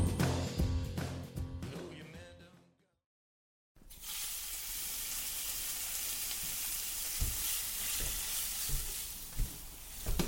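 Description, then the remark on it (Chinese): A few seconds of music end abruptly, then after a brief silence a cheese egg pancake sizzles and crackles steadily in a hot pan, with a couple of soft knocks near the end. “我想说弄个 cheese 蛋饼给你吃啊。”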